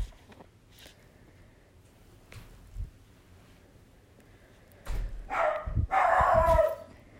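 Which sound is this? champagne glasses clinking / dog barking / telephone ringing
dog barking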